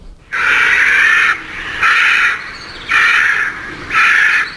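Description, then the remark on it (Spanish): Four loud, harsh caws from a large bird, each a drawn-out rasping call of about a second, repeated at a steady rhythm with short pauses between, with no voices. “No es precisamente un ruiseñor. No. Tampoco Hombre, no es un canto que digas, oh, me embelesa.”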